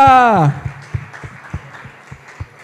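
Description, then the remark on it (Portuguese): An audience bursts into sustained applause for the Lord right after a raised voice cuts off, the clapping forming a dense wash with steady low thumps pulsing beneath it. “E amém, aplauda o Senhor com força.”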